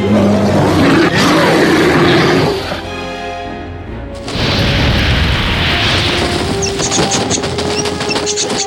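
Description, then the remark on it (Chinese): A black bear roars loudly in long, rough, gravelly bursts, with a brief lower, more tonal growl between two sustained roars. No one speaks. “连黑熊也站起来，挥舞双手，大喊。”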